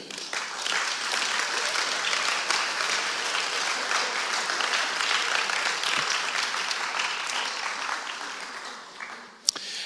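Sustained, dense applause from a church audience welcoming two volunteers onto the stage, many hands clapping in a steady wash of sound that holds for about ten seconds, with a brief sharp accent near the end.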